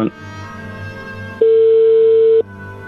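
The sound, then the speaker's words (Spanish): A telephone ringback tone on a call: one steady, mid-pitched electronic beep lasting about a second, sounding loudly over a low background hum, with a brief tone fading out at the very start. “Pero te está sonando.”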